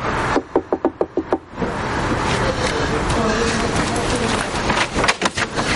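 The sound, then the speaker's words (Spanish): A quick, evenly spaced run of about seven sharp knocks on the kitchen window pane of a restaurant, followed later by a few more taps, all over a steady hiss of background noise. “aprovecha el instante para golpear en la ventana.”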